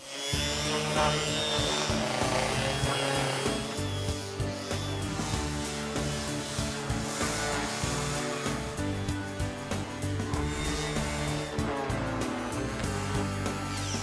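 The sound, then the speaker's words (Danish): An orbital sander whirs steadily, its motor humming with a constant buzzing drone while abrasive rubbing against a wooden table adds a rough, hissing texture throughout. “Jeg bruger en rystepusser, så får jeg en pænere ensartet slibning, frem for hvis jeg skulle gøre det i hænderne, så er det også lidt nemmere.”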